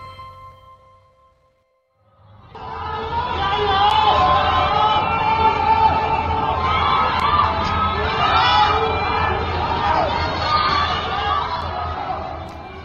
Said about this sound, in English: You're hearing sounds from Wuhan as 11 million people in that big city have been advised to stay home. Residents in high rise apartments literally shouted encouragement and sang songs out their window in solidarity to keep spirits up.